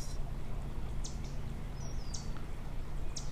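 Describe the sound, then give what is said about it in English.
Faint birds chirp in the distance, a handful of short, scattered calls spread across a few seconds over a steady low outdoor rumble. No one speaks. “Wherever you are, Really taking in the surroundings, the sounds, maybe the warmth of sun on your skin, maybe a soft breeze brushing against your face, the gentle birds chirping in the distance.”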